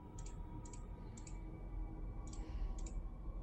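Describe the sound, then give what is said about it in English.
Dice being rolled: a handful of small, sharp clicks and clatters as the dice tumble against a hard surface, coming in brief bursts over a low background hum. They are fairly faint, and no one speaks. “you still have to roll because there is a chance of complications”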